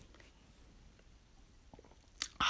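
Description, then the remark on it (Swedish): Quiet mouth sounds build to a short sip of a soft drink, taken to wet the throat, ending in a sharp, louder burst of slurping or swallowing. No one speaks. “en klunk eh, läskedryck här.”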